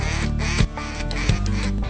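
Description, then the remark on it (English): A high-ball duck call blows a loud hail call: a long, raspy string of quacks run together with brief breaks, no one talking over it. “Here come the ducks, hit the high baller.”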